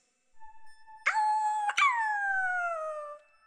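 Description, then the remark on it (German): A dog howls with no one talking: a thin whine swells into a loud, sustained howl, breaks briefly, then slides slowly downward in pitch before fading out. “kläffte der Hund zurück.”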